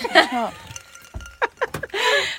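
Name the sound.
glasses clinking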